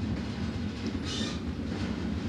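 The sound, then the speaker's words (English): A train car rolls steadily along the rails, a continuous low rumble and clatter at even loudness, with a brief higher hiss partway through. No one speaks. “I find the train car scene really moving because it's not overly sentimental.”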